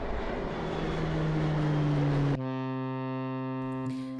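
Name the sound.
airplane engine flying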